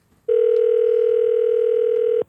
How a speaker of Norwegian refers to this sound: har lurt på hvorfor hver episode starter med en telefon til den samme dama, en ganske frekk og veldig lattermild eh, dame